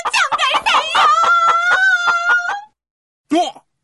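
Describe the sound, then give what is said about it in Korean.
A rooster, the legendary Myoil Seonggwan of the story, defeating a scorpion demon, lets out one loud, drawn-out crow lasting a couple of seconds, then after a short pause gives a brief final squawk. “묘일성관이 원래 수탉이었구나. 역시 전갈에는 수탉이 답인가 봐.”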